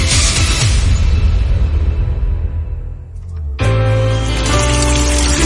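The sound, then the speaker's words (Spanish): Drinking water runs steadily from a home tap in the Dominican Republic with a loud rushing splash that fades slightly, then an abrupt shift brings a brighter, ringing tone over the continuing flow. “Que ahora el agua potable llegue a casa de Miriam y de dos millones de hogares más, lo logramos juntos Gobierno de la República Dominicana.”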